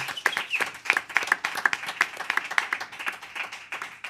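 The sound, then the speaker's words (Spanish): An audience applauds for Sonidos Independientes with a dense, steady crackle of many clapping hands that lasts about four seconds at an even, moderate loudness, without fading. “Voy a pedir un aplauso para, para aquí.”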